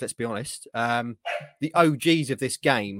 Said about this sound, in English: Sorry about the dog. I'm going to mute.